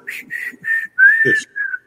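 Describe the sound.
Someone whistles the melody of the Pernambucanas store jingle: a handful of clear sustained notes, the longest sliding slightly upward, with brief gaps between phrases and a few faint breathy sounds underneath.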